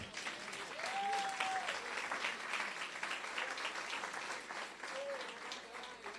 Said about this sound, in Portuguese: Pode aplaudir Jesus?